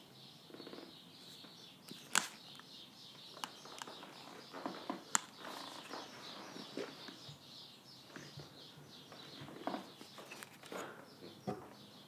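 Birds chirp and twitter continuously right outside the door of a house in a busy, overlapping chorus, punctuated by a few sharp clicks and knocks. No one speaks.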